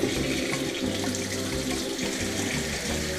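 water running

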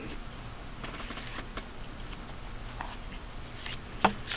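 tarot cards being shuffled

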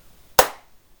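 single hand clap

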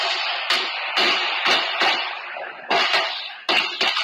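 rifle gunfire

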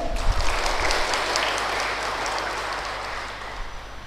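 big round of applause

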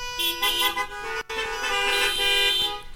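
car horns honking

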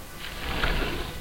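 window being opened

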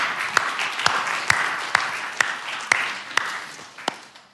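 round of applause

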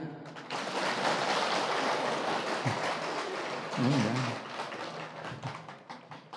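audience applause

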